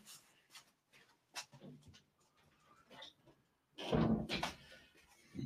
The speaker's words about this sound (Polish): Zamknęliśmy, e, zamknęliśmy drzwi do studia.